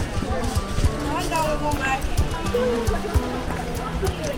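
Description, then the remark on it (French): Bustling ambience of the Sandaga open-air market in Dakar, Senegal, on a hot, sunny Tuesday afternoon, crowded with traders, customers, cars and motorbikes: a dense wash of overlapping voices, scattered clatter and hoof-like clip-clopping, steady and fairly loud with no single sound standing out for long. “Le marché en plein air de Sandaga est comme à son habitude, vibrant et bondé.”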